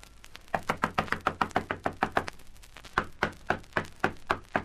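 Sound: knocking on a door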